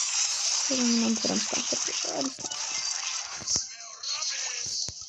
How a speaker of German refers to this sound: Ja, das ist der Staubsauger. Von unserem Nachbar. Nicht der von uns.